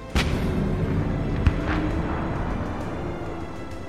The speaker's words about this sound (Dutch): En hoe komt deze, de held ter held, hoe komt hij aan zijn einde? Door een kanonskogel.